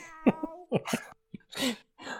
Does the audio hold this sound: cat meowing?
yes